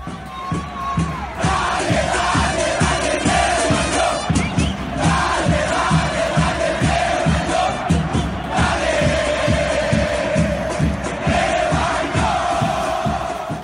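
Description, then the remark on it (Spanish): A large stadium crowd chants loudly and continuously, voices rising together in a steady rhythmic cadence with regular accented beats, sustained at full volume for the whole stretch without pause. “No, por más que le canten, dele, dele.”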